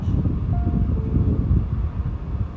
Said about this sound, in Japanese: いや今飛行機が飛んでるんだけど